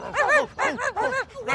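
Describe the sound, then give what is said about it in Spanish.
Four quick, high-pitched yapping barks in a rough rhythm, fairly loud, with short gaps between them and no talking. “¿Cómo se portaron mis perritos?”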